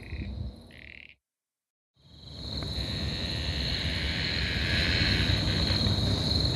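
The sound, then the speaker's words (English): Frogs call at night in a dense, rasping chorus, with a steady high trill running underneath. The sound cuts out briefly near the start, then returns loud and unbroken, with no talking. “I love that frog up.”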